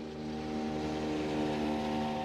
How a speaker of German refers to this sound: Über 800 Kilometer Luftlinie entfernt, mit dem Schnellboot durch den Regenwald auf dem kurvenreichen Rio Atrato, der Hauptverkehrsader der Provinz Choco im Nordwesten Kolumbiens.